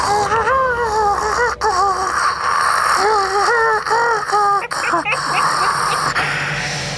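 A chicken squawks repeatedly in loud, wavering bursts, with several harsh cries close together over a steady background hum and no talking.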